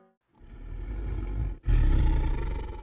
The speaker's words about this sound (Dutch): Ja, daar hoor je onze draak en die moet weer wakker worden, want eind juli is het zover. Dan komt de draak weer terug op zijn eigen vertrouwde nest op het stationsplein.